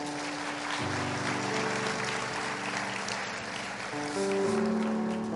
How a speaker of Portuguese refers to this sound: Bata uma salva de palmas para Jesus aí.